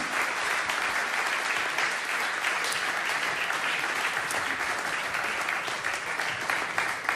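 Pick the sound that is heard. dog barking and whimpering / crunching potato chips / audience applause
audience applause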